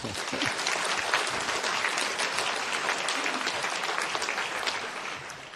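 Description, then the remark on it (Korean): A church audience applauds steadily for several seconds to encourage a member coming forward to give a testimony, a dense, even patter of many hands clapping at once that holds its loudness throughout and eases slightly near the end. “어, 우리 어, 힘내시라고 박수로 한번 격려하시겠습니다.”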